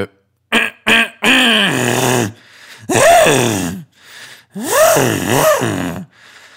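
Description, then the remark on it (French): A voice mimics an engine: a few short choppy bursts, then long swooping tones that rise and fall like revving, fairly loud, with no words spoken. “Attendez, la deuxième note, c'est pas imiter un bruit de moteur quand même.”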